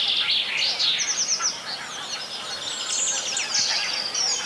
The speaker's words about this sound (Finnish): Sano vaan rohkeasti sitten laji sieltä. tulee peippo. No niin. Päästään peippoon asti.